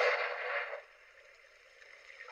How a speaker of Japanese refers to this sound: これ波の音ですかね。あ、いいですね。海辺で星空を眺める。とてもロマンチックですね。